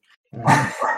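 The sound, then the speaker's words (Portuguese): A dog barks loudly, a single harsh bark that runs into a second, lasting under a second, preceded by a faint brief sound with no talking. “Porra, tem um cachorro latindo muito alto aí.”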